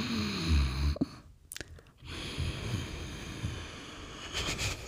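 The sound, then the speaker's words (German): Slow, hissing ujjayi breaths drawn through a constricted throat with the vocal cords slightly tightened, soft, with a brief pause midway before a long, steady ocean-like exhale resumes. “Das ist aber auch so ganz kurz vorm Schnarchen. Also du musst quasi so deine, deine, deine, äh, wie heißt das hier, Stimmbänder so ein bisschen so zusammenziehen.”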